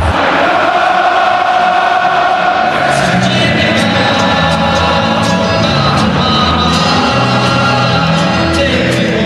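A huge stadium crowd sings along to a song in unison, loud and sustained, with scattered shouts and whoops rising over the massed voices.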